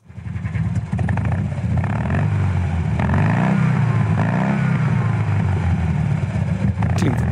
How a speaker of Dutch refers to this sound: eigenlijk ook best nog wel indrukwekkend tijdens zo'n Fiatje 500. Ja, zo'n tweecilindertje heeft iets raars, hè?